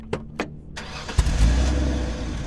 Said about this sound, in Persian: ساعت ده بود که ماشین رو روشن کردم و از خونه زدم بیرون